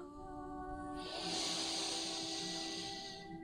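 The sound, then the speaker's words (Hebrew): One long, deep breath drawn in during a guided relaxation exercise, a steady airy hiss for about two seconds, swelling and then easing off, over a faint continuous tonal hum, with no talking. “בואו ביחד נמצא וניקח נשימה עמוקה.”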